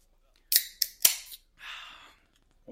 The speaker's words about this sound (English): Before we uh, before we kick this session off, should we uh, crack a beer? Let's do it. Cheers, boys.